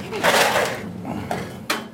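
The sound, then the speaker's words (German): A refrigerator door under an innkeeper's bar counter is pulled open with a broad rushing release, followed by two sharp knocks and clicks, with faint background noise behind. “Die Kühl Türen unter seiner Theke muss der Wirt also oft aufmachen, aber 12.000 Liter Stiftswein im Jahr wie im Mittelalter werden heutzutage nicht mehr getrunken.”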